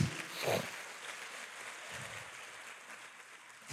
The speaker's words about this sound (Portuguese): Aleluia. Aplauda Jesus.